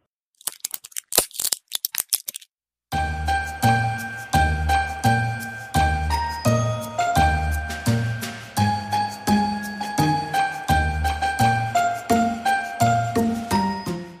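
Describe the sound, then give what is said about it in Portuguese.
A few sharp crackling pops and foil crinkles of an antidepressant pill being pushed out of a blister pack, brief, followed by a steady rhythmic music track. “Se você está ciente e deseja continuar, permaneça na linha após o barulho do meu antidepressivo sendo tirado da cartela.”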